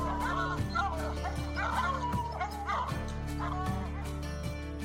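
Several hunting hounds bay and bawl at a bear in overlapping, drawn-out cries, loud, over a steady low droning backdrop that runs throughout.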